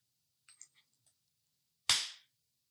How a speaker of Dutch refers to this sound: Het lijkt erop dat we er een traditie van maken om een muntje op te gooien over wie de vraag mag stellen.